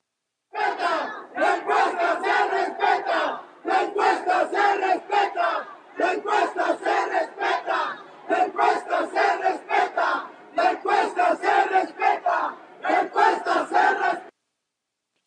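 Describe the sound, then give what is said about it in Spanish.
A large crowd of supporters of former candidate Omar García Harfuch chants in protest, demanding that the poll results be respected, shouting loud rhythmic phrases in unison, repeated in about six bursts separated by brief pauses, with no individual voice standing out. “Sin embargo, como si fueran reflejo de lo que ocurría en la mente del ex candidato, sus simpatizantes manifestaron su desacuerdo y exigieron que se respetaran los resultados de las encuestas, cosa que no ocurrió.”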